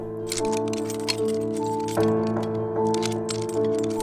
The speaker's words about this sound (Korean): 집주인이 열쇠로 문을 열고 들어오려고 한다.